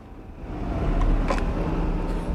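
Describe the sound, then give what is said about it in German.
A car engine revs up into a steady, heavy low rumble as the car accelerates at a traffic light just turning yellow, the roar swelling over the first second and then holding loud, with no voices. “Da, schon gelb. Geben Sie Gas!”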